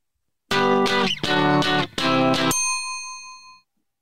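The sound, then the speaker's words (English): A two-second burst of a loud pop song, played as a quiz tune, with dense, distorted-sounding chords hit in rhythmic blocks, then cut off into a bright ringing tail that fades out. No one speaks. “Here is your third two second tune?”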